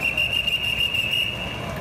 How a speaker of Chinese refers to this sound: 大批员警站在台中东协广场前，原本坐在阶梯的移工赶紧收拾东西，甚至有员警用吹哨的方式要求外籍移工离开。